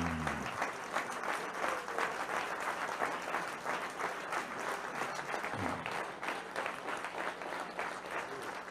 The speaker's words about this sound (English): Let's hear it for brother.